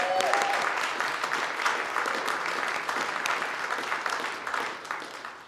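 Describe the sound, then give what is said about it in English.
A crowd of people claps steadily for several seconds in an appreciation round of applause, dense and sustained, with a faint whistle or tone near the start and no talking over it. “I don't know if we gave a big enough appreciation round of applause for Tyler and Amari”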